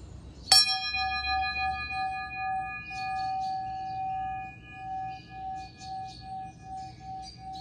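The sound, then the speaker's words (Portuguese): A small bell is struck once near the start, then its clear, bright tone rings on and slowly fades across the whole clip over a quiet, soft background. “isso que eu percebi que meu olho tava fechado, o sininho não tava nem parecendo.”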